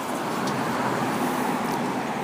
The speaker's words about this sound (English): Although a very nice 1950s, I want to say a Studebaker just passed by, which had this uh, kind of mint green um, paint job. It's very cool, flat.